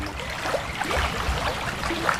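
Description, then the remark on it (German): The Modau, a small Rhine tributary, flows steadily beneath the historic town hall in Funkstadt, its water trickling and babbling in a continuous, moderately loud wash with no voices. “das historische Rathaus wurde direkt über der Modau errichtet und war lange Zeit die einzige Brücke in Funkstadt”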